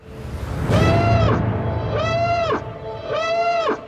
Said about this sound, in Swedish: Jag älskar den där eh, sirenen ju. ja. Som är i, i trailern till Rogue One.